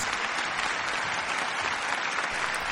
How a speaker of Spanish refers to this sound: Estos aplausos son para vos, que te quedaste a escuchar hasta después de los créditos.